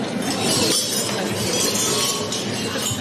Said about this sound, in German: Ja, da hört man noch das Klappern der Gläser.